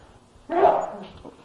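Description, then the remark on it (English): A single abrupt sneeze bursts out loudly, then fades over about half a second, with a faint murmur of speech around it. “Bless you.”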